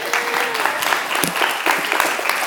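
A crowd claps steadily for a few seconds, dense overlapping applause with a bit of murmuring mixed in.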